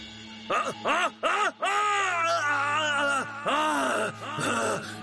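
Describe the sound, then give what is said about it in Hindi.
A man cries out in drawn-out, agonized groans and screams as sacred ash (vibhuti) falls on his body, starting with a few short bursts and then sustained wailing, loud, over a low steady hum. “वो तेज आवाज में चिल्लाने लगा”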